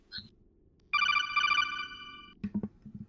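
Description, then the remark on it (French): A phone rings once with a bright, steady electronic trill lasting about a second and a half, then fades, followed by brief low clattering thumps. “Non, je vais lui téléphoner alors.”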